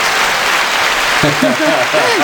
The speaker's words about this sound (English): Uh, audience applauding for you and your time.